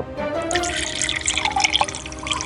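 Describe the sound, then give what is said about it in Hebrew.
Water pours steadily for a couple of seconds, a continuous splashing trickle with bright gurgling and dripping detail and no voices, as a thirsty person pours water to drink. “אני צמאה, אני מזוג מים.”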